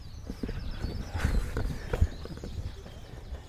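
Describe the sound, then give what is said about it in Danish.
A horse-drawn cart rolls past in a car-free area near a harbour, hooves clip-clopping in an uneven rhythm over a low rumble of wheels, moderately loud, with no one speaking. “Øh, det, er, det er lige præcis den vogn.”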